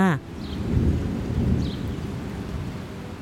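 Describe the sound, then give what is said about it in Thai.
Steady rain hisses throughout while a deep, rolling rumble of thunder swells and lingers underneath, loud, with a short clipped voice-like sound right at the start; out-of-season rain falling during the dry season. “วันหนึ่งในฤดูแล้ง มีฝนหลงฤดูตกลงมา”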